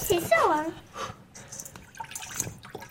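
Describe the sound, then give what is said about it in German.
Hands dip and swish in a basin of cold water, making short splashes and drips, with a brief voice at the start; the hands are dipped again and again while mixing hot couscous grains by hand. “Deshalb Hände immer wieder in kaltes Wasser tauchen.”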